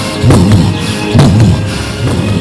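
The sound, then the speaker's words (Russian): Deep, muffled thumps of a mother's heartbeat, as heard by a fetus inside the womb, repeat about three times at a slow, steady pace, each one swelling with a low whooshing pulse against a constant murky rumble. “В огромной вселенной материнского организма над нами, как гигантский молот, постоянно бьющий по наковальне, пульсирует сердце. Бум!”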